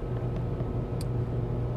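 Steady low rumble of a car interior, engine drone and road noise filling the cabin evenly, with one faint sharp tick near the middle and no voices.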